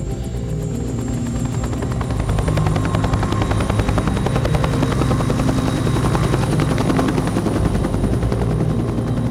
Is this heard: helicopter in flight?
yes